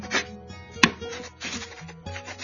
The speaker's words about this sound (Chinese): 你听到这个声音了吗？它是铅笔掠过纸的声音，准确的说呢，是签字的声音。